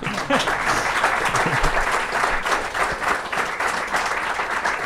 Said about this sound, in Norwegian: Applaus til Anders der.